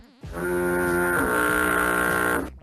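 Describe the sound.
A person imitates a cow with one long, loud, droning moo lasting about two seconds, low and buzzy with a steady pitch that wavers slightly midway before trailing off.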